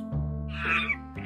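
A monkey in a tree calls out with a single shrill, chattering cry lasting under a second, set over a steady low droning tone, with no talking.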